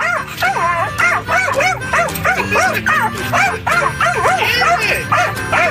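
A dog barks in rapid, excited bursts at a moving windshield wiper, chasing it as if it were an enemy, yipping and whining almost continuously, with the wiper's steady rhythmic swish faintly beneath.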